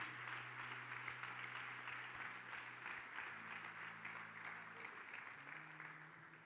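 A church audience applauds the Lord steadily, a dense wash of many hands clapping for several seconds, with a sustained organ or keyboard chord humming softly underneath.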